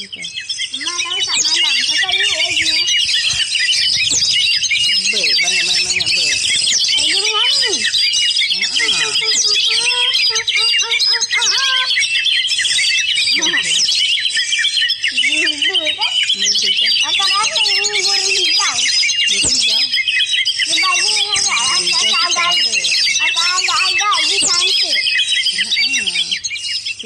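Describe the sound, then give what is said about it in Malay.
A dense, continuous chorus of sparrows chirping and chattering, loud, running the whole time, with indistinct human voices murmuring underneath. “comel kecil. Macam ni rumah pipit kan?”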